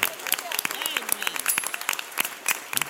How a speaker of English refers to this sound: Come on, one more time. If you come in, in this house with a praise in your heart, come on, clap your hands and bless the Lord.